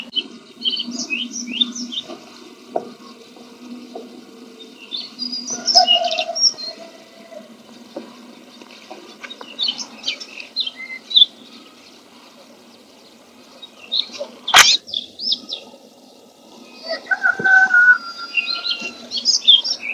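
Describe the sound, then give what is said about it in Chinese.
Clear, high-pitched bird song of a Daurian redstart, with bright chirping phrases in bursts separated by pauses, plus a low steady hum and a sharp click partway through. “不错，我录，我现在录的这个其实就是北红尾渠的叫声。”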